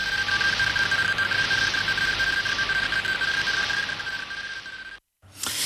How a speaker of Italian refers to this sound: Beh, vengono i brividi a sentire questa eh, ricostruzione, eh, ovviamente nata dalla fantasia di Hoyle, dell'arrivo di questo segnale dalla costellazione di Andromeda.